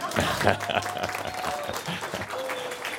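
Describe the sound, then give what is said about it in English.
Polite golf applause: a steady patter of light, scattered clapping that holds at a moderate level for a few seconds without cheering or whistles. “One golf applause.”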